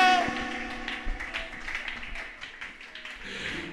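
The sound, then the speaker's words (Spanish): A church audience claps in a loose, scattered patter of overlapping hand claps, fairly soft and uneven, with faint voices murmuring underneath. “No, no, no, si usted es la iglesia y lo conoce, ese aplausito, no, no, ese es para llevarlo allá a la iglesia católica, ese es para llevarlo allá a los mormones, pero si usted vino a aplaudir al que creó los cielos”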